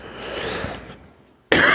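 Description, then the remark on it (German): A close, breathy cough trails off over about a second, then after a brief pause a second loud, harsh burst starts abruptly. No one speaks. “ich muss leider ähm, zu oft husten jetzt”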